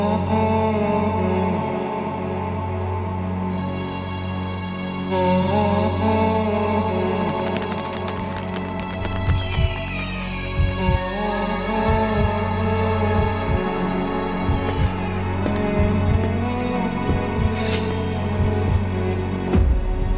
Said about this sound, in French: il a sorti ce vendredi 12 janvier un single, …, et on l'écoute tout de suite sur Web Radio